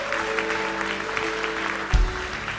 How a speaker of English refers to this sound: Hey, let's give a round of applause to every single one of those who made a decision.